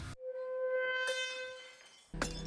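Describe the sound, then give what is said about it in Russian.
A loud, steady tone rings continuously while a wine glass, broken by the sound, shatters with a sharp crack partway through, followed by a burst of rough noise near the end. No one speaks. Filmed by the YouTube channel The Slow Mo Guys. “Парни с YouTube канала The Slow Mo Guys в мельчайших подробностях и очень медленно показали, как разбивается бокал с помощью звука.”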